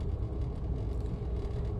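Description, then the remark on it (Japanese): A steady, low engine and road rumble from a car driving along a country road lined with grass and rice paddies, continuous, with no voices and no change in pace over the short stretch. “まあ、何しろね、こうやってこう、車走らせていって、まあ、脇見運転するってわけじゃないんだけど、目に飛び込んでくる。”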